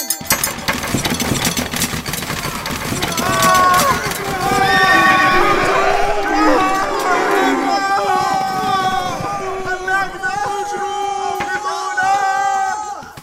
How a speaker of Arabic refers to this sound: لقد أخاف صوت الأنعام وأخافت بدورها خيول الجنود إنها تركض هائجة مبتعدة عنهم وتقلبهم من فوق ظهورها